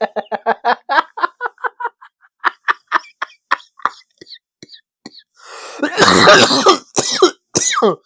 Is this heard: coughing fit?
yes